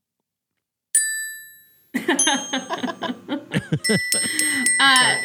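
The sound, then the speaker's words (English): A single clear bell ding rings out after a moment of silence and fades over about a second, then people start talking and laughing over a faint lingering shimmer. “still rings the bell.”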